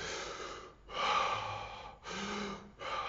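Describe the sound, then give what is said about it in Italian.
A person does a deep-breathing exercise, taking audible breaths: a long airy inhale followed by a slow exhale, repeated in a steady rhythm with brief pauses between them. “Se uno fa già 3 o 4 respiri così profondi, già proprio cambia completamente l'ossigenazione che noi abbiamo nel corpo.”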